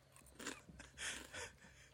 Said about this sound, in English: Do you want me to crunch again? a small crunch. Yeah, I could go yeah. for okay, crunch.